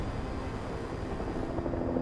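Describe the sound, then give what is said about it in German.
A helicopter drones steadily overhead, its rotor chop a continuous low, pulsing rumble with a broad wash of engine noise, fairly loud and unbroken throughout, with no voices. The helicopter is high in the sky, leaving the city and carrying a passenger to a hospital outside the city. “Erst als der Hubschrauber hoch am Himmel steht, wird Kia klar, dass sie die Stadt, in der sie ihr ganzes Leben verbracht hat, verlässt.”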